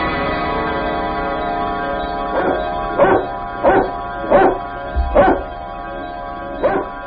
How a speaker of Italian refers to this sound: Hai la tosse? Cafone, non sono io che abbaio con la tosse, è il cagnolino che abbaia senza tosse. Cagnolino, ma sei sicura che non sia un leone?